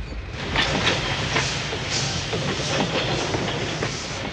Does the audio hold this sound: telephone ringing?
no